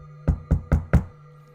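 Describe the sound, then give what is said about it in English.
Four firm knocks on the door of a home in quick, even succession, clear against a faint low hum, with no voices; a woman selling magazine subscriptions knocks on a snowy winter Saturday morning. “I was watching cartoons when there was a knock at my door.”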